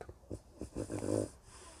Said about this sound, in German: Da atmet selbst mein Hund tief ein und aus.